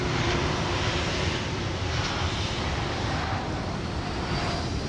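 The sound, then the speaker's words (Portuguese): A steady, loud airplane engine roar at Madeira International Airport fills the air, a broad continuous rumble with a faint high whine, holding constant without pause and no voices present. “Da varanda do Aeroporto Internacional da Madeira, Ana Luísa, com os olhos no céu, espera pela filha com uma lágrima de saudade.”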